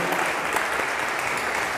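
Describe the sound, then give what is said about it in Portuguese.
An audience at the Casa da Fé church applauds first-time visitors steadily, a dense, even wash of many hands clapping at once, loud and sustained without any break, with no voices standing out above it. “Vamos aplaudir o Senhor pela vida dessas pessoas.”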